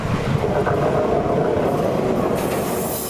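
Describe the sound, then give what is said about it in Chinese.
A train rumbles steadily along railway tracks, a dense low roar of wheels and carriages with faint rhythmic clatter and a thin squeal creeping in toward the end, with no voices. “而这些煤矿全都要仰赖铁路运输出口。”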